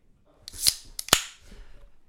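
A 0.44-litre can of IPA beer cracks open to be poured into tasting glasses: two sharp, bright pops with a short fizzy hiss, then a faint low trickle that fades away. No one speaks.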